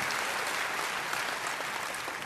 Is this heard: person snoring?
no